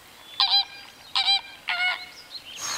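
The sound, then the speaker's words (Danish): A giant black bear's characteristic call signal, calling the other bears together: three loud, nasal honking calls spaced evenly apart, each with a bright, buzzy tone, followed by a short burst of airy hiss at the end. “Den kaldte nu de andre bjørne sammen med det for den almægtige sorte kæmpebjørn så karakteristiske kaldesignal.”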